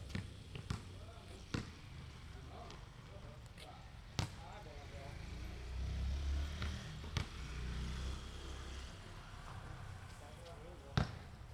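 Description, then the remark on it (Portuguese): A basketball court, recorded with a 3D recording technique: a ball bounces with sharp, echoing thumps at irregular intervals, over a low hum of room noise and faint voices. “Nesse momento mesmo, você está numa quadra de basquete. Vamos ouvir um pouco da trilha ao redor.”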